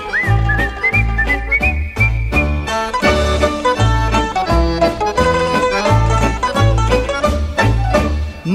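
Someone whistles a bright, high melody over a bouncy musical accompaniment with a steady thumping bass beat, the whistled tune sliding and holding notes throughout.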